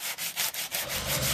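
A sanding machine grinds against wooden window frames, a raspy abrasive noise that pulses in quick, regular strokes, with no talking.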